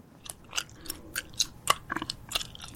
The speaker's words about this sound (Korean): 자, 오늘은 무언가를 짭짭 찰지게 씹는 소리였는데요. 불어서 풍선을 만들 수도 있는 이것은 무엇이었을까요? 자, 소리 다시 한번 들어보실래요?